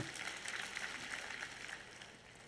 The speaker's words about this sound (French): Vous devez être fatigué, vous applaudissez si peu ce matin.